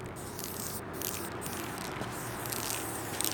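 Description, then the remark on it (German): At 1 a.m., an activist sprays paint from a can onto a zebra crosswalk, writing the words 'Gremo Volit' (go vote). The can hisses steadily in one continuous, fairly quiet burst, a soft airy spray with faint background noise and no voices. “Die Aktivistin sprüht auf einen Zebrastreifen die Wörter Gremo Volit, geht wählen.”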